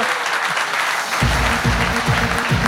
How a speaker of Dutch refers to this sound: geef hem een hartelijk applaus. Dankjewel voor je komst.